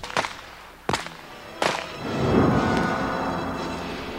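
Three sharp revolver shots, fired at a tin can by moonlight, crack out in quick, evenly spaced succession. Each is a loud, sudden bang, followed by a low rumbling wash of sound that swells and slowly fades. No one speaks.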